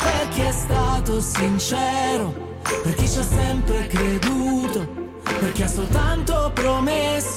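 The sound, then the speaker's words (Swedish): An upbeat pop song at the top of the Italian chart, with a male lead vocal singing in Italian over a steady bass-heavy beat and bright backing instruments, played loud and continuous throughout. “Första låten vi ska lyssna på ligger i topp på Italienlistan.”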